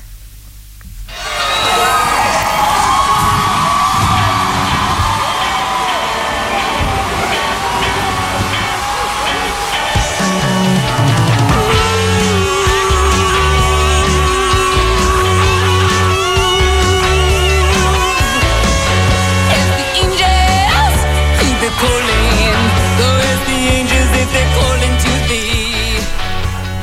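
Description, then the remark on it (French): A large concert crowd cheers and shouts in a loud, continuous roar. About a third of the way in, a band's pounding rhythmic beat kicks in underneath the noise. “Ah, qu'est-ce que je donnerais pas pour vivre ça actuellement Tout rouvre, les terrasses, les cinés, les écoles, mais toujours pas les concerts.”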